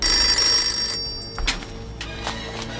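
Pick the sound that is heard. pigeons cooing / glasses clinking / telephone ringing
telephone ringing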